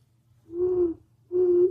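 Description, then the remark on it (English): Two low, steady hoots of a bird call, each about half a second long, separated by a brief pause, fairly loud against faint background rumble; a voice imitates a hooting call heard during the day. “but like it like hoots during the day”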